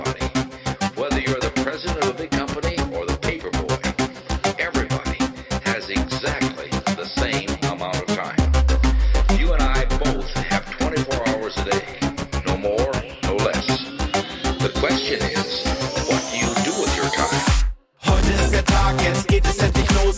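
A loud, steady pop track with a pulsing beat and layered synths, a rising sweep building before a brief drop to silence, then the beat kicks back in.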